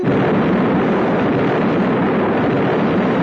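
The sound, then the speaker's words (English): A loud, sustained roar of an explosion as a thrown ripe melon sets off a landmine in the mined front yard of the Grease Palace, with shrapnel filling the air. A dense rumbling wash of noise stays steady without fading, with no voices present. “It's a sort of gargantuan explosion, uh, shrapnel filling the air”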